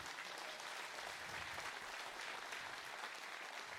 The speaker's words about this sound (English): And so uh, one of those guys, he couldn't be with us today and he normally plays, is Brad Dorsey. I uh, would give Brad a hand.